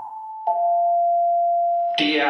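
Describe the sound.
A public-address chime on the Magasin department store's customer radio: a single steady electronic tone holds for over a second, loud and clear, then cuts off as a voice begins speaking.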